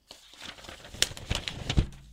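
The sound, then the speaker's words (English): Crinkling of paper, a run of sharp crackly rustles with a few louder crunches near the end, heard alone without any talking. “Oh, if you're new to this, that would be paper paper crinkle number one.”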